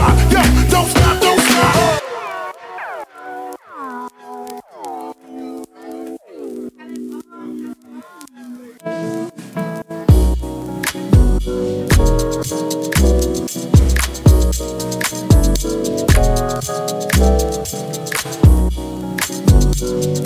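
A hip-hop track plays on its own on the Radio 1 show Jackpot, opening with a soft melodic passage of sustained tones before a heavy, steady beat with punchy bass kicks enters about halfway through.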